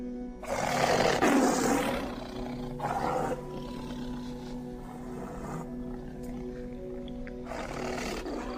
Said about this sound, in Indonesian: Apa itu auman harimau? Yap, betul banget.